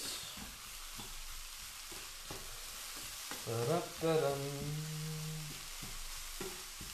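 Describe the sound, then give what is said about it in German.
Peppered mushrooms sizzle steadily in a hot pan while a utensil stirs and mixes them with repeated clicks and knocks; a brief low humming tone rises midway over the frying. “So, und einmal schön durchmischen.”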